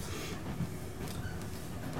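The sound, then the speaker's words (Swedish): A train rumbles steadily along the rails through freshly fallen snow, slipping a little on the rails and unable to run at full speed; a continuous low, dense roar with faint rattling on top, without any talking. “slirar lite på rälsen liksom innan de får fäste. Och ni kan eh, börja ploga er framåt.”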